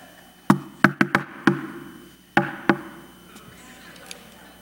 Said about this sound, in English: Like, tell me what my emotion is if I come to your house and I knock like this. See? Let's say I come to your house and I knock like this.